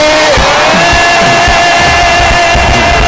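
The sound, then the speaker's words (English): A church audience screams and cheers together in a loud, sustained roar, with whoops and shouts overlapping throughout, dense. “Wow, why don't you give him a scream?”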